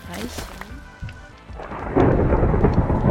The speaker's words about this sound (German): Nee, jetzt gewittert es auch noch. Digga, wenn ich es mal brauche, dann ist es nie da. Und jetzt re und jetzt gewittert es, ist klar. Ja, danke Minecraft.